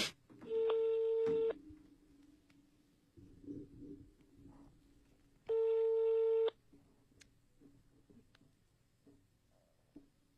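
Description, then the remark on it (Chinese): Two long, steady beeps of the ringback tone of an outgoing call placed by a Nanyang, Henan radio evening program to a listener's mother in Chongqing, about a second each and roughly four seconds apart, sounding loud and flat over a faint low background murmur. “电话发过来了，来打一个电话。”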